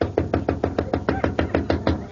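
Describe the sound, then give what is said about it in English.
A rapid, steady run of about a dozen sharp knocks on a door, evenly spaced and fairly loud, with no voices. “Will you answer the door?”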